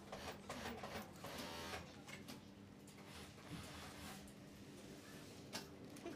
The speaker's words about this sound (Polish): Teraz przechodzimy przez pierwsze pomieszczenie szwalni i słychać maszyny.